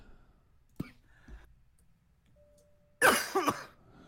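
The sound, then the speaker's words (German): A single loud sneeze, a sudden breathy burst with a short voiced tail, following a few faint clicks and quiet background noise. “Ja, ja, Gesundheit.”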